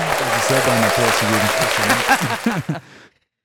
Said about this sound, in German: Das Richtige gemacht. Ein Applaus, Bruder.